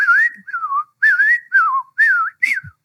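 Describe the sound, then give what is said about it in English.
A person whistles an imitation of a robin's jumbled song: six short, clear warbling phrases in quick succession, each rising and falling differently, fairly loud with brief pauses between them. “I wake up at 5 a.m., and the very first bird calling is probably a robin as it sings its song. Well, its song is just jumbled up.”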